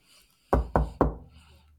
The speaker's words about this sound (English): Knock on wood. Knock on wood.